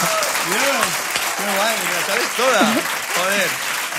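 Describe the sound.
Sustained audience applause, a dense, steady wash of clapping for the full length, with voices calling out and whooping over it.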